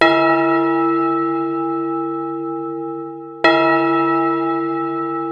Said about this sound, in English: They were even allowed to ring the bells.